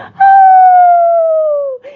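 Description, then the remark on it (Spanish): A wolf, burned after sliding down a chimney into a large pot of broth heating on the fire, lets out a single loud, drawn-out agonized howl that holds a steady, piercing pitch and then slowly sags lower over about a second and a half before cutting off abruptly. “La quemadura fue tan grande que pegó un aullido desgarrador”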